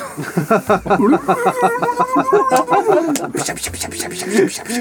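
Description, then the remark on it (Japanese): A voice imitates liquid splattering, repeating a quick, hissy 'bisha bisha' splashing syllable over and over in a steady, rapid rhythm. It is fairly loud and continues for several seconds. “もう5人だったらもうその音を聞いてもらうしかないよねビシャビシャビシャビシャビシャビシャビシャビシャビシ”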